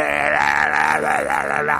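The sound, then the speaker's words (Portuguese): A voice imitates thrash metal screaming with a loud, sustained, strained vocal wail that wavers up and down in pitch for about two seconds, with no other talking. “Isso se chama trash metal, que é aquele.”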